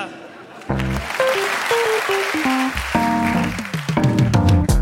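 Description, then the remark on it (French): Audience applause at a Montre Comédie show bursts in after a brief quiet moment and carries on steadily, a dense wash of clapping with voices calling and cheering over it. “On arrête et les gens applaudissent.”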